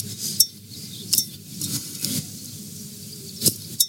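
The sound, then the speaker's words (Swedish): Crackling and scraping of a wax seal being picked and peeled off a bottle's cork, with several sharp little snaps and clicks over a low rustling bed, no voices. “Passar jag på att pila av eh, den här... Eh, Lilla vaxade korken.”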